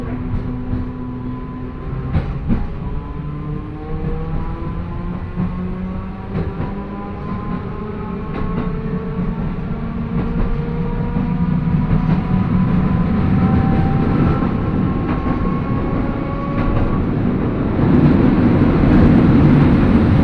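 A Manyosen tram running from Takaoka Station to Koshinokata in Toyama, Japan, rumbles along its rails, heard from inside the car, a steady low drone with gliding motor whines rising and falling and occasional sharp clicks over the joints, growing louder toward the end.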